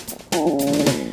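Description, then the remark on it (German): A loud, drawn-out stomach growl with a wavering, tonal rumble that starts abruptly after a brief quiet moment and carries on for about a second, unaccompanied by talk. “Das war mein Magen.”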